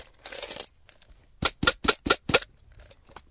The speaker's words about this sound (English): She's trying to stuff handfuls of antique keys back into a plastic jar. They are keys to doors that no longer exist.